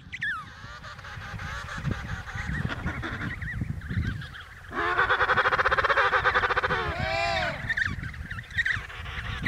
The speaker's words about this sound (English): It is better than the pumped in crowd noise. Just a bunch of penguins going.